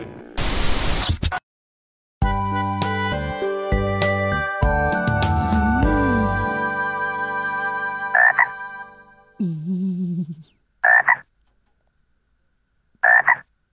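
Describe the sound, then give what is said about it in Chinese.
A burst of static gives way to a frog's droning, buzzy croak that holds for several seconds, followed by a warbling call and a few short, sharp croaks spaced apart. No one speaks. “呃呃，结果硬币还是被青蛙给吃了。”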